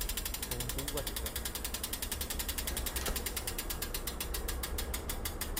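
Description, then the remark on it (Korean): A rapid, steady stream of sharp mechanical clicks from a bicycle's rear hub freewheeling, buzzing loudly, with a low hum and faint voices underneath; the hub's loud sound is distinctive enough that cyclists can recognize its brand. “지금 어, 이 소리를 들으면은 아마 자전거를 타시는 분들은 브랜드를 예측할 수 있을 정도로 다들 잘 알고 계시는 그런 거고 소리가 큰 게 나는 것이 또이 이 스타일의 자전거를 타는 사람들한테는 약간의 자부심 아니면 되게 좋아하는 선호 그런 것들을 나타낼 수 있는 상징적인 그런 거죠.”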